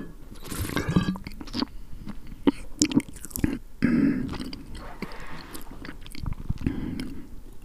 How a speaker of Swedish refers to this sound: Så här låter den flaskan. Wow. Jag ska ta en klunk.